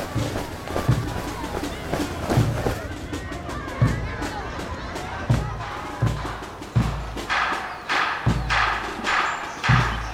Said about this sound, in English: we're going to listen to some of the sounds you may have heard on the day of the battle as people marched through the streets. Barricades were raised, police horses galloped, and people yelled in anger and in unity.